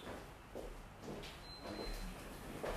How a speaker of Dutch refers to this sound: Even de deur openmaken voor mijn hondje, jongens.